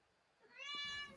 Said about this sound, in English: That's my cat cock shaming himself to the world by screaming at the podcast. I promise I don't abuse him. It's just really windy outside and he wants to go outside and he can't while it's so windy and we're recording.